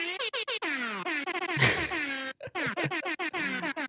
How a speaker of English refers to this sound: Should we give him this, let's give him the air horn.